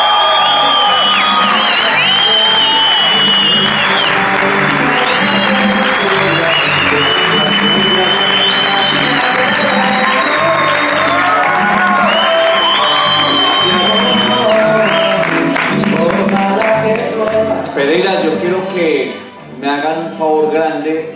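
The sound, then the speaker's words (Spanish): A large audience claps loudly and steadily to welcome a "diamond executive" speaker, with whoops and shouted cheers rising over the applause. The noise stays dense for about twenty seconds before thinning briefly near the end. “Así es que ayúdenme a recibir con un muy fuerte aplauso al diamante ejecutivo”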